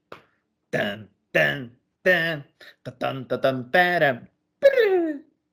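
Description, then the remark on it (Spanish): A single voice imitates a guitar riff, singing about eight short, pitched syllables in a choppy rhythm before ending on a longer note that slides downward. “Hazte cuenta que es …. Empieza el, el riff. tan, tan. Tan, tan, tan.”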